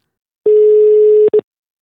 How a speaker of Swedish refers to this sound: Personen du har ringt är upptagen i ett annat samtal.